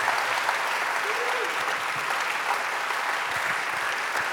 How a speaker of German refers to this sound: Lass uns einen Applaus geben all diesen Leuten. Danke vielmals.